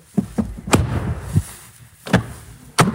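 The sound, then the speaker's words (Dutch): The door of a GLB car is slammed shut with a solid thud, among a handful of other sharp knocks and bumps spread unevenly across a few seconds, no talking. “Ik gooi met allerliefste plezier de deur dicht.”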